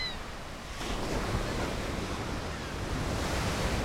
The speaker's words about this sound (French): À Mimizan, les vagues sont hautes et fortes. Ça fait peur, mais c'est aussi super amusant.